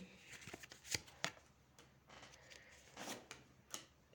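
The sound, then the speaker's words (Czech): Cards being shuffled and laid out in a card reading about health, with several sharp slaps and crisp riffling bursts spread across a few seconds, fairly quiet overall and with no talking. “Co se týče zdraví, tady hodím ještě další karty.”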